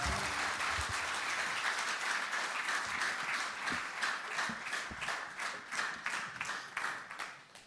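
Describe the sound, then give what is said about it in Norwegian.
An audience applauds steadily, a dense crackle of many hands clapping at once, holding strong throughout and thinning slightly toward the end. “Det, det, er fantastisk å få sånn overbærende applaus.”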